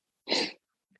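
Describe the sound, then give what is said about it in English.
A single sharp sneeze bursts out, loud and breathy for about a third of a second, followed by near silence with only faint small noises. “Bless you. My goodness.”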